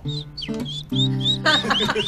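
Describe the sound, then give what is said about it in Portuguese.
Birds chirp in quick, repeated high sweeps over about two seconds, clear, with steady low tones humming underneath. “Faça os pássaros, tá vai.”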